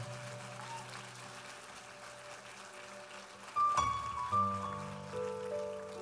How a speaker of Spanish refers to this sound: Sí, vamos, dale un fuerte aplauso a Él. Dale un fuerte, fuerte aplauso a Él.